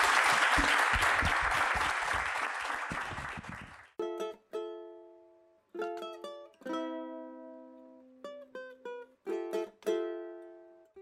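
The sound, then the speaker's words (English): Dense, steady audience applause for a panel at the ATX Festival fills the first few seconds, then cuts off, giving way to a sequence of bright, ringing musical notes that decay between strikes. “And with that, uh, one more round of applause for our panel.”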